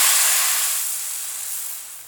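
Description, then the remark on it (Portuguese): A drop of water hits a very hot plate and vaporizes abruptly (calefaction), giving a bright, steady sizzle. A broad hissing crackle starts loud and slowly fades over about two seconds, with no voices. “Por exemplo, que é que acontece quando a gotinha de água cai em uma chapa que está super quente? A gente escuta aquele famoso.”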